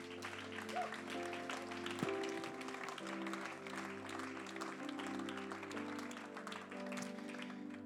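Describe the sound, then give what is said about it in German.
An audience at a church service claps steadily for a person who has just been blessed in prayer, a dense wash of applause from many hands, while sustained keyboard chords play underneath at a moderate level. “Lass uns nochmal Applaus geben für diese Person.”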